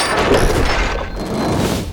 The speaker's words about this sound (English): And the catapult whips the heavy stone through the air, sending it hurtling towards the target.